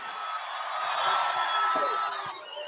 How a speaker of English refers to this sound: I was standing with thousands of Trump supporters on the lawn rising up to the Washington Monument. Trump came on stage to raucous applause.